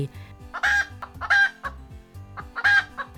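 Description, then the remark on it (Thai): A startled chicken, hurt in the eye by a sesame seed, squawks and clucks in agitated bursts as it jumps and flaps its wings. Three loud, sharp calls are separated by brief pauses, with no talking. “ไก่เจ็บตาก็กระโดดก้างปีกกระพือบินพับพับพับพับด้วยความตกใจ”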